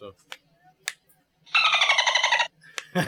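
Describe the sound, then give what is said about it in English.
A loud, one-second burst of high, rapidly chattering dolphin squeaks, like a censor bleep, set between brief clicks and short bits of voice. “playing around with the dolphin noise.”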